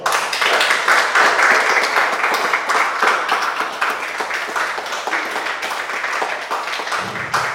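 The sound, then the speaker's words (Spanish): An audience applauds together for God during a church service, a dense, steady wash of many hands clapping that stays loud throughout and eases slightly toward the end, with faint voices mixed in. “Dale un aplauso a Dios.”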